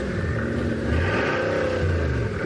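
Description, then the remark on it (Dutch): The 8-litre W16, 1500 hp engine of a Gran Turismo sports car revs steadily after starting, a loud, dense low rumble with rising and falling harmonic sweeps as the throttle is blipped, heard alone without talk. “Echt een beest. Ja. 8 liter W12, W16. W16, Ja, ja. 1500 pk.”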